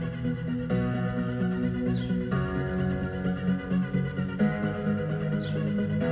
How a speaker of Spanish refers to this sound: Lo que voy a hacer es inclinarlo hacia adelante e inclinarlo hacia atrás para que podáis comprobar ese efecto que queda curioso, que sería equivalente a oír al sonido encima de nuestra cabeza o por debajo. Ahora mismo tenemos la canción al frente.